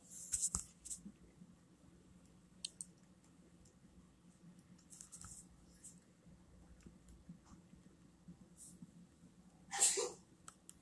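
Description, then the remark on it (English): A single sharp, loud sneeze bursts out near the end, following a stretch of quiet background noise with faint murmuring and a few soft clicks. “Bless you.”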